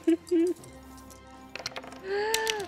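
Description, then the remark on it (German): Dice clatter in a quick burst of small, sharp clicks across a hard surface as all the players roll for an Act Under Pressure roll, with voices murmuring before and during the roll. “Äh, würfelt mal alle bitte auf Act Under Pressure.”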